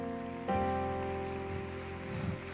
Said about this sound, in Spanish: Dale un fuerte aplauso a Jesús.